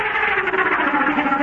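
A charging bull elephant, in a sequence cut out of a Marlin Perkins show, gives a loud, harsh, sustained blare that stays steady for the full moment, rough with a distorted, echoing edge and no voices.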